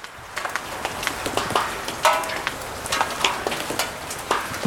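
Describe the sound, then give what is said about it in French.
Steady outdoor rain with a dense crackling patter and scattered sharper drops striking surfaces, continuous throughout, with no voices. “On va se mettre un petit peu sous le vent, l'abri de la pluie.”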